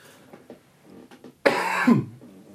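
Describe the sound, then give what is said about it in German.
A single loud, abrupt sneeze or cough bursts out after a second of near-quiet with faint rustles, its harsh airy blast trailing off with a falling voiced tail in about half a second. “Gesundheit.”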